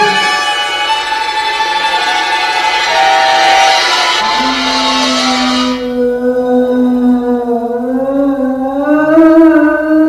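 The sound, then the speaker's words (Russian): A hound howls on the moor in one long, drawn-out, wavering cry that slides between pitches and swells upward near the end, in a dramatization of Conan Doyle's The Hound of the Baskervilles. It is loud and eerie, with no voices. “Говорят, что такие звуки не редкость на болотах. А как здешние жители объясняют этот звук? Они говорят, что так воет собака Баскервилей.”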